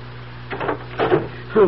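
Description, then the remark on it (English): A door is unlatched and opened against a door chain, giving three wooden clunks and rattles spaced about half a second apart, fairly loud over a low steady hum. “Open the door, but keep the chain on.”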